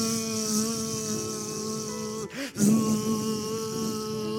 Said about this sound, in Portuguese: Eu não vejo mais a glória, eu só vejo moscas. Eu não vejo mais a comida, eu só vejo moscas. É zzz,